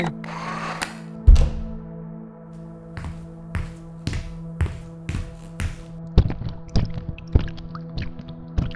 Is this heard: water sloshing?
yes